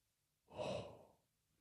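One heavy puff of breath forced out through the nose by a man reacting to a quiz question, swelling quickly and trailing off in under a second, with no talking around it.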